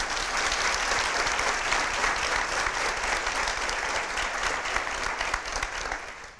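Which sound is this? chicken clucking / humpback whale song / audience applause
audience applause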